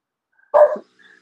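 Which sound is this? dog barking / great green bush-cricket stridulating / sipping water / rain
dog barking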